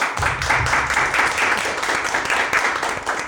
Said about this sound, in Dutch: Een heel warm applaus voor jullie zelf.